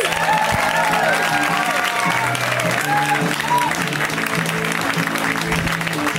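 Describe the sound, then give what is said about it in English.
A live crowd applauds steadily and loudly for the host, dense clapping with a few whoops and cheers rising on top, sustained throughout without pause. “Give it up for your host.”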